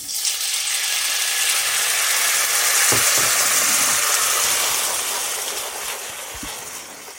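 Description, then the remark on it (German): A little chicken broth poured into a hot pot of browned caramel for chestnuts sets off a loud, continuous hissing sizzle that swells quickly and holds steady, with a few soft clicks and rattles underneath. “So, jetzt hat der Farbe genommen und bevor er jetzt zu dunkel wird, gebe ich ein bisschen Hühnerbrühe dazu.”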